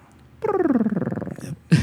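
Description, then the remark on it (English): A voice imitates the purring whir of an electric Boxster: a fairly loud hum that glides downward with a rapid fluttering pulse, then a brief breathy burst at the end. “Sounds like my cat when it purrs like that.”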